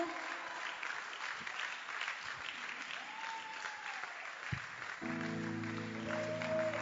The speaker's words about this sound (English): Come on, you can clap your hands better. Are you excited to be in church this afternoon?